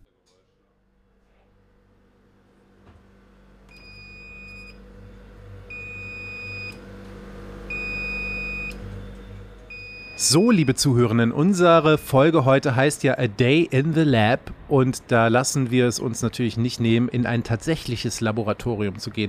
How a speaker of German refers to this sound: Was ihr gerade hört, ist eine Belüftungsanlage oder eine Klimaanlage. Ich weiß nicht genau. Es sieht ein bisschen aus wie eine Küche, wo ich mich gerade befinde, aber es ist tatsächlich ein Labor